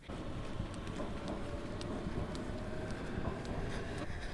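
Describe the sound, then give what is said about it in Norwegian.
A steady, loud rumble of a T-bane metro train rolling along the rails, with a deep low roar and scattered sharp clicks and squeaks from the track throughout. No one speaks. “Nå har vi gått av T-banen og nå er vi på vei til å ta en annen T-bane til å komme til neste stopp.”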